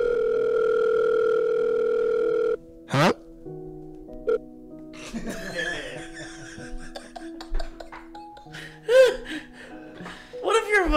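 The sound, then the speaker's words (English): A telephone rings with a steady electronic tone for a couple of seconds, then cuts off, followed by scattered voices and laughter-like bursts. “Give me one second. I gotta get this one.”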